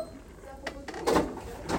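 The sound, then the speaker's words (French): A door closing: a few short knocks and clicks, then a louder rattling clunk and a final latch-like click, all at moderate volume. “Attends, attends, t'as fermé la porte, il y a quelqu'un qui peut.”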